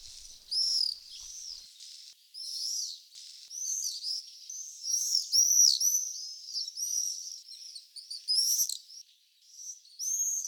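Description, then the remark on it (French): Shrill, high-pitched screaming calls of common swifts in repeated overlapping bursts, rising and falling in loudness throughout, with no talking. “Pour le deuxième épisode de la série des oiseaux migrateurs de retour en France, je vous propose le martinet noir.”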